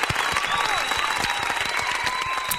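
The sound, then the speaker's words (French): A burst of steady applause from a crowd, dense clapping that fills the whole moment at a consistent loud level, with a faint sustained tone running underneath. “Voilà, applaudissements.”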